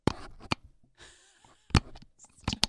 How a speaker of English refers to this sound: This is a sound of a plastic box opening.